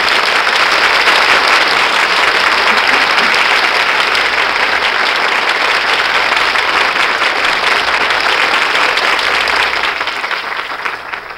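A large studio audience applauds loudly and steadily after a Screen Guild Theater radio presentation of Ninotchka, a dense wash of clapping that holds for about ten seconds before beginning to taper off at the end.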